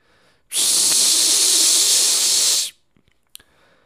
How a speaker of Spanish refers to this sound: y alguien gritó eh, una fuga de gas o es gas o mm, algo relacionado con gas, ¿no?